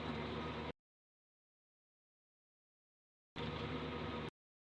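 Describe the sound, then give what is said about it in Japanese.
Steady, dense rumble of a car cabin while driving with automatic steering near Furano, Japan, as light rain begins to fall, heard in two short loud bursts separated by a few seconds of complete silence, with no voices. “車なので収録をしながら撮ってみようかなと。”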